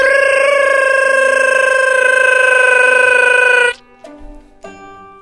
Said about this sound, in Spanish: ¿Cómo suena el teléfono?